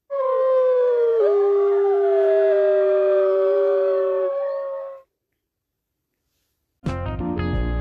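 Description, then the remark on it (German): A single long wolf howl, loud, its pitch sliding slowly downward over about five seconds before fading out. A brief silence follows, then an abrupt burst of a different sound. “Das ist ein Wolf.”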